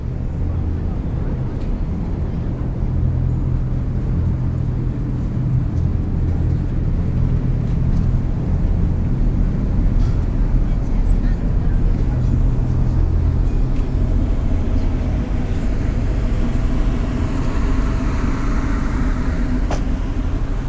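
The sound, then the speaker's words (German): A harbour ferry, line 72, docks at ferry landing 1: its engine rumbles steadily and loudly, the deep low drone shifting as the vessel manoeuvres, with faint clanks and harbour noise over the top. “Am Fähranleger 1 wird es laut. Linie 72 legt an.”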